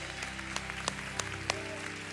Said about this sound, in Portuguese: Glória a Deus, em nome de Jesus. Dá uma grande salva de palmas ao Senhor.